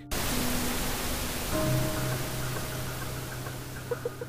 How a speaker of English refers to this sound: And with that, the screen turned to static.